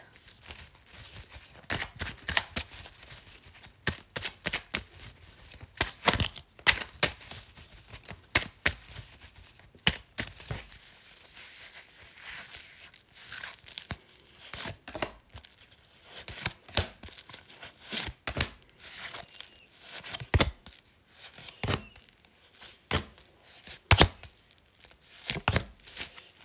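Tarot cards being shuffled: crisp, irregular snaps and papery riffles repeat for nearly half a minute with short pauses between bursts, and no one speaks.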